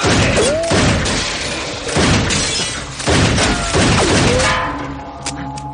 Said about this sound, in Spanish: De pronto, Boom Boom sale de su cabaña y les dispara.